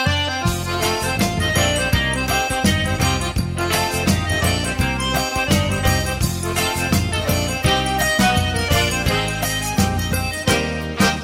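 A lively, full instrumental xote introduction, with harmonic melody lines over a steady, bouncing dance rhythm of regular accented beats, playing continuously without any singing or talking.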